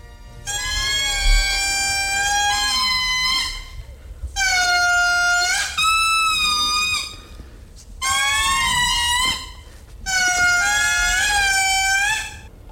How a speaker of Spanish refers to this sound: Y ahora ha llegado el momento, no sé si está preparado, de escuchar a los indris, que son los monos de Madagascar, con, cantando.